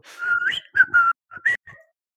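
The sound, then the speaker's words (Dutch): A person whistles in a whistled language: a quick series of short, pitch-gliding phrases, rising and falling like spoken syllables, clear with brief gaps between bursts, ending on a softer held note. “Doe het even in fluittaal wat je gaat vertellen.”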